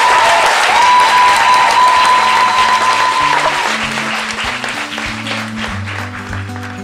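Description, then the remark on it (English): A loud, dense round of audience applause rolls on steadily for several seconds, easing slightly toward the end as a low musical melody begins underneath. “and in 54321, I'm going to invite you to give a very loud round of applause”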